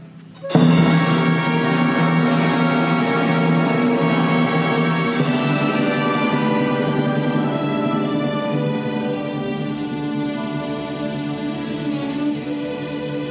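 After a split second of quiet, a recording of the waltz Sobre las olas by Rosas begins and plays on steadily, full and fairly loud, with rich sustained melody and harmony and no voices over it.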